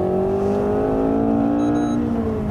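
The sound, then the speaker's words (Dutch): A Renault Megane RS Trophy R sports car engine revs loudly as it shifts gears, its throaty hum climbing steadily in pitch with no voices over it. “Schakelen.”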